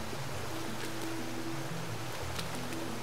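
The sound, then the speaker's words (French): A waterfall pours down in a steady, continuous rush of water, a dense hiss with a low rumbling undertone that stays constant throughout, moderately quiet, with no voices. “Ah, Anka nous fait un nouveau signe pour qu'on la suive sous la cascade.”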